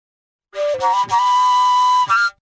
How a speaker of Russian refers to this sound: Да, вот это длинный колюка.